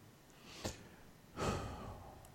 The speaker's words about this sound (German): Da atmet er wieder durch.